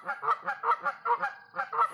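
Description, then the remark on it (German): Two geese honking in a rapid, repeated series of loud, nasal calls, roughly eight honks in two seconds with no pause between them. “Ja, das sind zwei Gänse.”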